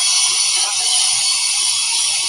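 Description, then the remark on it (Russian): A friend's power drill runs loudly and steadily, its harsh high-pitched whir holding constant for a couple of seconds with no voices over it. “это работает дрель моего приятеля Степы”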